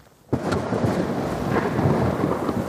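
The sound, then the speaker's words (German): A storm rising in the east breaks out with a sudden loud onset: deep rumbling thunder rolls continuously over heavy pouring rain mixed with snow, filling the scene with dense, steady noise and no voices. “Mit aller Kraft, als wolle ihm die Natur noch einmal zeigen, wer hier das Sagen hat, brüllt ein Sturm im Osten auf. Dunkle Wolken schieben sich vor die Sonne und es beginnt zu schütten.”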